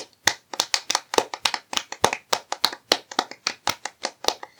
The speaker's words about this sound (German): Wir haben es diesmal jetzt gerade auf 6, 16 Minuten geschafft. Das neue, das neue Rekord. Dafür kriegen, dafür klatschen wir jetzt auch mal noch mal für uns.